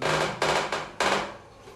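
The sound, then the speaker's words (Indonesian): A noisy chair clatters with four sharp wooden knocks in quick, uneven succession, loud and hollow, then settles into a faint rustling scrape with no voices. “berisik sekali kursinya kursi aja nggak percaya omongan saya”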